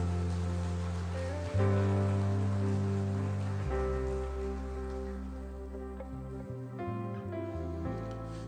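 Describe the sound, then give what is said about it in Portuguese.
An audience claps steadily in a dense, even patter that lasts the whole stretch, with sustained keyboard chords playing underneath and shifting every few seconds. “Dá uma salva de palmas a eles aí, queridos.”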